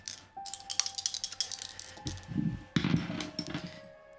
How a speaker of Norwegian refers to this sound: Uh, ja, han klør seg skjegget, og så ruller han terning.